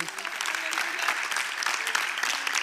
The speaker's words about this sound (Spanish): ¿Cómo lo decimos al pueblo de la televisión, Iglesia Fe Agrada a Dios? Dele un fuerte aplauso al Señor Jesucristo.